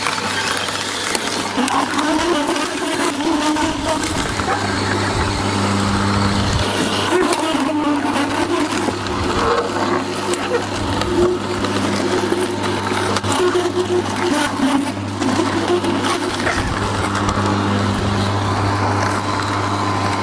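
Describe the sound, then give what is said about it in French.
A juicer motor runs steadily in sped-up playback while making pomegranate juice, a loud constant mechanical whir with a strong low hum and bursts of grinding clatter throughout. “Comme ça va faire beaucoup de bruit, je pense que je vais le passer en accéléré.”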